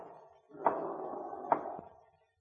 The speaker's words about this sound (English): It's a ghost again. The dead Dutchman. He taps like that every so often. In spite of himself, the eerie sound sent a chill coursing down the sergeant's spine.